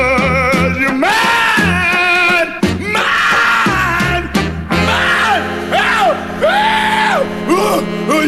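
A loud rhythm and blues song with a raw, screamed male vocal swooping up and down in pitch over a steady band, sustained and intense throughout.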